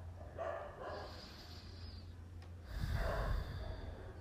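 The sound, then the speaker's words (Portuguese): Dogs bark in the neighborhood, two muffled, rough bursts separated by a pause, over a low background rumble with no one speaking. “E isso pode ir se formando aos poucos, como os cães que latem na vizinhança ao meu redor, os cães que conversam.”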